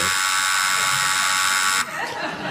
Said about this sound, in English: That's a long buzz because I know it to be true.